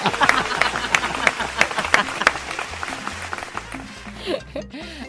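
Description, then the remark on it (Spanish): Hands clap in a quick, steady rhythm, sharp and fairly loud at first, then thinning out and fading. Low voices and laughter murmur underneath, with a brief vocal sound near the end. “Un aplauso por tu comentario tan estúpido.”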